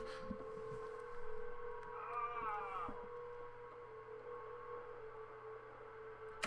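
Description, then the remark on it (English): A low, ominous humming drone of the Golden Gate Bridge, a suspension bridge, heard while walking across it, holds steady throughout, with a wavering higher whine swelling briefly in the middle over faint background rumble. No one speaks. “That ominous humming is the sound that you hear when you walk across the Golden Gate Bridge.”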